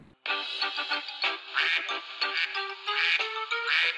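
A flock of ducks, walking quickly in formation, quacks continuously and loudly, their overlapping calls forming a busy, chattering stream with no pauses.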